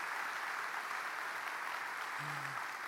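An audience applauds for Jesus, a dense, sustained wash of many hands clapping at an even loudness throughout, with a brief low tonal hum appearing near the end.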